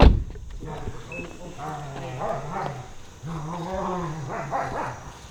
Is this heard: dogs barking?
yes